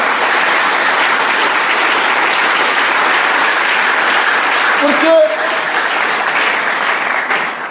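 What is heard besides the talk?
applause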